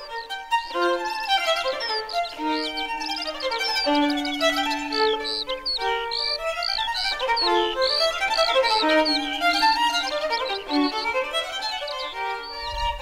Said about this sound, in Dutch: Die boerzwaluw, die scholleksters, die tuurluurs, veldleeuwerik. Ja. Af en toe een waterhoen.